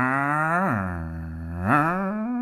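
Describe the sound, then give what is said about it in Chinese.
A person hums an imitation of a car engine note as the throttle is released: a steady, buzzy drone that drops to a lower pitch for about a second, then climbs back up and holds. “啊，就我可能模仿的不是很像，但是呢，我油门一松，它其实引擎啊，它还是有一个持续的那个声音的波动”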